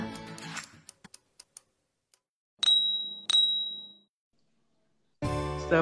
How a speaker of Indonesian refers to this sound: Kring kring kring kring Sepeda